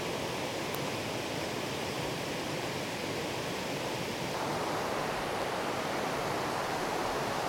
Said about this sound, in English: Just try your best to tune in to the sound of this water on the podcast and tune out of wherever it is that you are, wherever your head is at right now. And let's just experience the sound of this water together across time, across places.